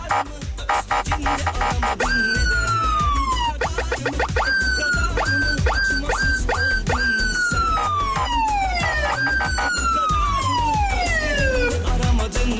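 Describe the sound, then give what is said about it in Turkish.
An emergency vehicle siren wails loudly, its pitch sweeping down repeatedly with a few quick yelping bursts in between, over a rumbling, busy background. “Mimar Sinan civarına bir e, siren alabilir miyiz demiş tabii ki.”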